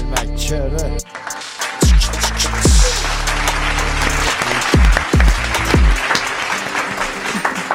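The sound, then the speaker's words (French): An audience claps steadily throughout, its dense noisy clatter layered over a loud, bass-heavy beat with repeated deep sliding bass drops. “eh, tu vois, tu vois, ça me fait rigoler parce qu'il y a, y a que pétales de Sakura qui applaudissent pas.”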